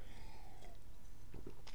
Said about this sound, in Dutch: Even een slokje water.